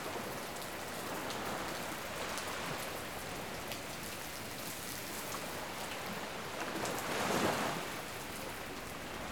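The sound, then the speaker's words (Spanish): Steady freezing rain pours down over the open water of the English Channel, a dense hiss of drops with faint surf beneath, swelling briefly louder near the end. No voices. “Para desgracia de la familia, la lluvia helada que cae sobre el Canal de la Mancha obliga a suspender las tareas de búsqueda.”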